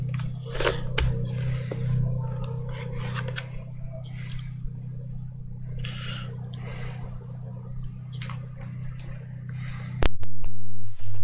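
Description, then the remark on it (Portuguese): Rustling, scraping and clicking handling noises over a steady electrical hum as another microphone is put in place and set up, then an abrupt loud buzzy tone near the end. “Eu vou colocar um outro microfone aqui.”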